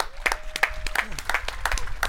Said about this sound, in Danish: Mine damer og herrer, kære lytter, giv en kæmpe stor hånd til den eneste ene